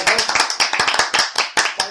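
A short burst of applause for Tito Paco: several hands clapping rapidly and irregularly, sharp overlapping claps at a steady, fairly loud level for about two seconds.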